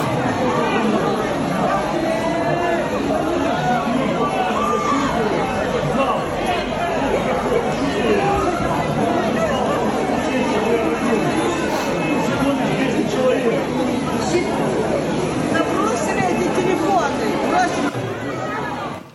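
A large crowd of hundreds of people chatters steadily before a Monday afternoon church service, many overlapping voices blending into a dense, continuous hubbub with no single speaker standing out, loud and unbroken throughout.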